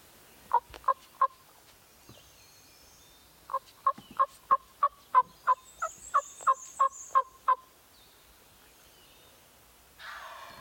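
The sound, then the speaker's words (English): A wild turkey tree yelps from its roost: three sharp notes, a pause, then a steady run of about a dozen evenly spaced yelps, clear, with no talking. “and he responds too, so that confirms yeah. that he heard it. That's tree yelping too.”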